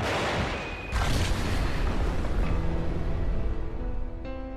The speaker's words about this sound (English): The local authorities have done this in order to provide security for the population. The cave was demolished with two controlled explosions.